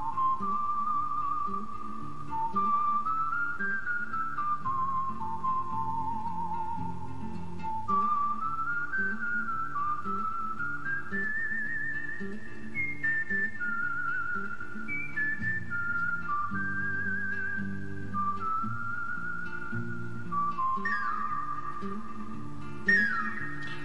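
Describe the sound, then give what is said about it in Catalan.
A clear whistled melody from a western film score, typical of such films, carries a slow, sustained tune of long held notes over a steady low orchestral accompaniment with rhythmic strings, prominent and continuous throughout, with no voices. “Aquest xiulet eh, també és típic d'aquestes pel·lícules, eh?”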